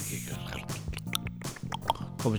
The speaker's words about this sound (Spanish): Yo este sonido tengo que decir que es, eh, el del WhatsApp junto con el de las teclas audibles. Eh, tengo que decir que es uno de los más molestos para mí